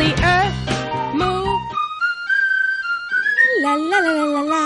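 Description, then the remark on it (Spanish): A loose chair creaks and squeals in long, drawn-out squeaks whose pitch wavers and slides. It is fairly loud, with a burst of voice-like sound at the start. “tu silla está suelta.”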